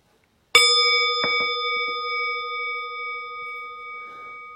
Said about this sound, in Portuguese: Então é isso, daqui a pouquinho eu vou convidar o sino a soar e você pode ficar quieta e quieta um pouquinho mais, sem pressa.